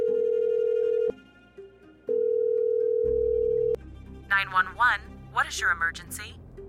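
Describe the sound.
A steady low telephone tone hums, cuts out briefly twice, then stops as a line connects with some background noise, followed by a person talking over the line.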